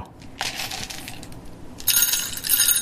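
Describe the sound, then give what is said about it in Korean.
Hard little coffee beans rattle and patter as they are dropped into a coffee grinder in two bursts, a scattered clattering pour that briefly swells louder, with no voices present. “원두 가는 소리 박PD 한번 더 들려드리세요”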